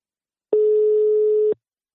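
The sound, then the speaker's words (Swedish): A single steady telephone ringback tone sounds once for about a second while placing a call to the company Invacare, a clear, plain mid-pitched beep with nothing else around it. “Nu tar vi en kort paus och ringer upp min samarbetspartner Invacare.”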